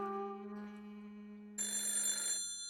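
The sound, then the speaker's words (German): A telephone in a hallway rings loud: a steady humming tone gives way to a bright, rattling burst of ringing that lasts under a second, with no voices. “hörte das Telefon im Gang klingeln.”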